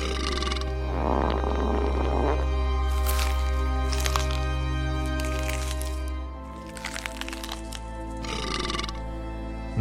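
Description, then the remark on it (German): Loud chewing and smacking noises with crunchy bursts, mixed with belching and farting sounds, all over a steady low rumble and with no talking. “Durch ihre Ohren peitscht das Geräusch von kauenden Zähnen, Schmatzen, Rülpsen und Furzen.”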